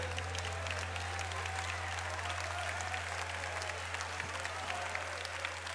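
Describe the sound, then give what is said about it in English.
A crowd applauds steadily for about six seconds, a dense, continuous patter of many hands clapping with a low hum underneath and no voices. “Well, it sounds like applause for our next guest, I think, more than the, the song.”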